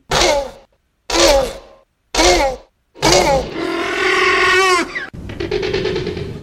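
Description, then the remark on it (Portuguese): A Velociraptor call for a dinosaur film, mixed from dolphin, walrus, goose, turtle and bird sounds: three short, raspy barking shrieks with pauses between, then a long harmonic screeching wail and a final rough rasping screech, loud, no talking. “uma mistura de sons de golfinhos, morsas, gansos, tartarugas e pássaros.”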